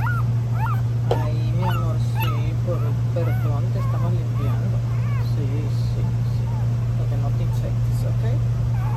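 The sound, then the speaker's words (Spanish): A small female dog whimpers over and over in thin, rising and falling cries, with a steady low mechanical hum running underneath throughout. “Bueno, ahora vamos a sacar a la perrita, poner otra capa de pañal”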